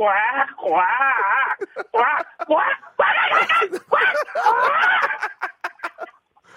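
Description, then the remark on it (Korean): A voice imitates a mallard duck couple fighting: loud, wavering nasal quacks and squawks in uneven bursts, growing more frantic midway before breaking into short, clipped calls that trail off. “자, 청둥오리가 청둥오리 부부가 이제 싸움하는 소리란 얘기죠?”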